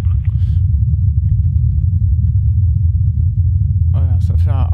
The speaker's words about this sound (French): donc un, gros ronflement. Alors je vous rassure, hein, c'est pas votre poste. Ce qu'on entend là, c'est le, c'est l'hélicoptère. On l'entend accélérer là d'ailleurs à l'instant.